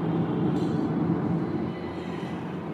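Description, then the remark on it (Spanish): A steady, continuous road rumble from inside a moving vehicle, heavy in the low end with a constant hiss over it, and no voices present. “Cabe acotar y me disculpan si el ruido se, se escucha un poco de los vehículos, pero voy grabando desde mi desde mi vehículo, porque quería compartir esta experiencia.”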